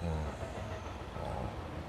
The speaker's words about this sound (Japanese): また電車来たよやっぱこの時間多いですね電車ね